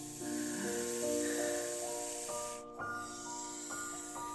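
A steady, airy snake-like hiss fills the scene, briefly cutting out midway before returning, layered over sustained eerie musical tones that shift pitch in long held notes.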